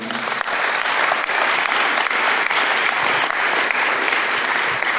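A crowd claps steadily in sustained, dense applause, loud and continuous throughout with no voices standing out.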